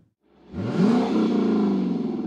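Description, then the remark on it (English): A car engine starts up and revs, its pitch rising quickly then holding at a loud, steady roar with rumbling harmonics, without any voices. “Five years on the engine sound.”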